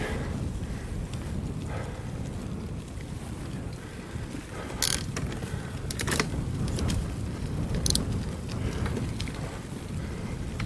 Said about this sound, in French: J'ai fait demi-tour. Et donc je suis face au vent. Et alors c'est pas pareil.